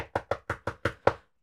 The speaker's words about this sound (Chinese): 突然听见，嗯，有人敲门吗？